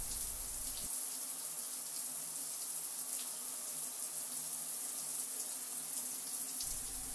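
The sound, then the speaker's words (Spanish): Shower water runs in a steady, dense hiss that stays even throughout, fairly loud, with no voices or other sounds. “Acaba la ducha y hago mi cuarentena en la toalla.”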